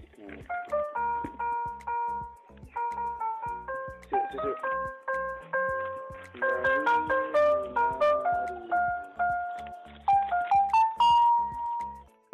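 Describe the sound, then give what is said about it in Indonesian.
A cheerful electronic jingle from a travelling Susu Murni Nasional pure-milk vendor's cart plays a looping tinkly melody of bright bell-like notes, steady and fairly loud, repeating in short phrases. “Susu murni nasional.”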